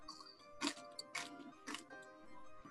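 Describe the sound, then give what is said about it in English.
Crisp crunching of a tortilla chip with salsa being chewed, three sharp crunches at a steady, even pace over a quiet background, with no talking. “I'm gonna take another bite if you don't mind. Yeah, go ahead. I, I love hearing you chew.”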